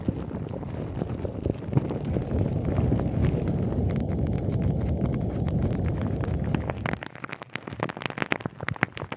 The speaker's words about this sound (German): Ich beschreibe mal, was man hier im Video sehen wird, und zwar Rasierschaum auf dem Mikrofon, blubberndes Wasser, das nah daran gehalten wird auch Schwämme und Pinsel, die einfach ganz zärtlich darüber gerieben werden.